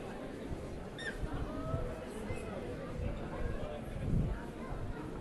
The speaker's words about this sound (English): Little wind, little wind in there. Hmm. I see loud waveforms later. More wind.